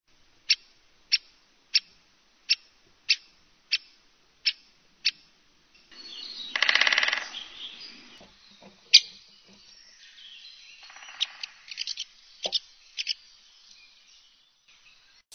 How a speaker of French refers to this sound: Il y a un pic qui vient de passer. Lequel Un pivert Épêche.